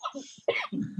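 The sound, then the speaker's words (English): A sneeze: a short intake of breath, then a sudden loud, airy burst followed by a rougher, lower blast that cuts off abruptly. No one speaks during it. “Bless you.”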